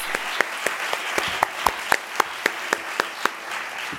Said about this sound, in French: Donc rien que pour ça, j'aimerais euh, faire euh, un tonnerre d'applaudissements pour ces, auditeurs et ces auditrices également qui sont investis dans leurs écoutes.